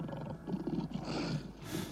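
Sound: lion roaring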